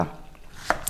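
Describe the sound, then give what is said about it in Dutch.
Two quick knife cuts through melon, fairly quiet: a firm thunk on the board followed by a sharper, lighter click a moment later, with no talking. “Ik ben meloen aan het snijden.”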